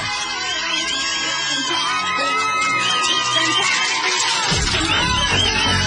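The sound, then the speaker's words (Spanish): A loud, dense crowd roar of applause and cheering for Claudia Sheinbaum fills the whole clip, with high whoops and shouts above steady clapping, growing fuller and heavier near the end. “Fuerte los aplausos.”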